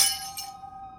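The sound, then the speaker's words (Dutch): A glass lamp bursts with a sharp crack, a second smaller shatter follows a moment later, and a clear ringing tone lingers as the sound fades. No one speaks. “Een deur slaat hard dicht, een lamp springt kapot, en er vliegt een kopje door de kamer.”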